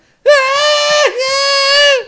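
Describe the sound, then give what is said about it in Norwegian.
A person lets out a loud, sustained imitation of a scream in two drawn-out bursts, the second following a brief dip in pitch, with no other talking. “Ja, men hadde jeg skreket sånn her”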